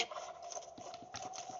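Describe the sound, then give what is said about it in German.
Horse hooves clip-clop in a steady, quick rhythm of short knocking beats over a constant background hum, moderately loud with no voices. “Oh, oh mein Pferd geht's gut.”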